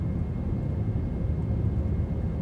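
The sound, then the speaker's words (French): A steady, low engine drone fills the space, the constant rumble of an airplane cabin in flight, broad and unbroken with no voices over it. “C'est peut-être dans cet avion qu'Albatros est né.”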